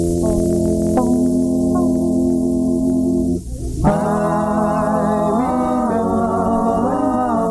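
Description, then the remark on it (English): A recorded vocal group sings rich, sustained close harmonies, holding long chords that shift every second or so, loud and steady throughout except for a brief dip partway through. “I don't know who it was, the bass or the baritone in this group. Let's give a listen.”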